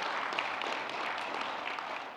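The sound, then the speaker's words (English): An audience at a morning church worship service applauds for the Lord in a steady, dense wash of clapping that holds evenly for a couple of seconds, with no voices over it. “All right, let's give applause for our Lord and Savior.”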